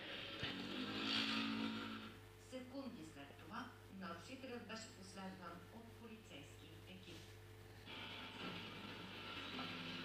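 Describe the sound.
A scooter's small motor engine whines as it passes by, fading under a stretch of talking and then rising again near the end, over a steady low hum.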